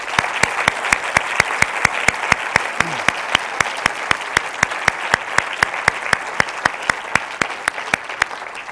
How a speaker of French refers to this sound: Est-ce qu'on peut leur donner une bonne main d'applaudissement, s'il vous plaît?